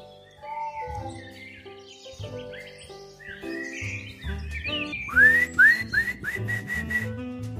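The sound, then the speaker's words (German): A person whistles a short family whistle call, first a few wavering melodic notes, then four quick upward-swooping whistles in a row, fairly loud, with no one talking. “habt ihr auch einen Familienpfiff?”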